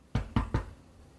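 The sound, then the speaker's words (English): Three firm knocks on a surface, evenly spaced in quick succession, fairly loud with a low thud to each, then quiet. “That was really scary because the delay made it so that I didn't see you knock.”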